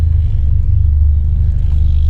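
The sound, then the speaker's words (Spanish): A steady low car engine rumble idles and hums, with a slight wavering as the car creeps and turns slowly while the driver tries to park; no one speaks. “Ah, me quiero estacionar y no puedo. A ver, vamos a ver. giro, giro, giro.”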